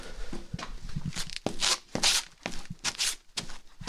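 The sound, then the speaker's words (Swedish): Foley footsteps, recorded to add sound to a film, stamping in place on a hard indoor floor, fairly loud, with a string of uneven thuds mixed with scuffs and rustling, and no talking. “Så går man inomhus och en fast, då står man och stampar här.”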